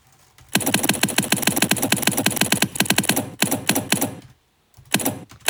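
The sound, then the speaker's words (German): Rapid, loud typewriter keystrokes clatter in a fast, steady stream, broken by a couple of brief pauses before the typing resumes. No one speaks. “Jetzt müssen wir den Schlitten wieder nach vorne bewegen.”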